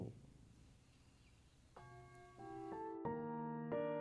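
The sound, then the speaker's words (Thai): A meditation bell rings out during a guided breathing meditation as the cue to slowly open the eyes while breathing in. After a quiet, hushed opening, it is struck about five times in quick succession so the bright, sustained tones overlap and shimmer together. No one speaks. “เมื่อผ่อนคลายด้วยบีสองแล้ว เมื่อได้ยินเสียงะระฆัง ให้ค่อยๆลืมตาตอนหายใจเข้า”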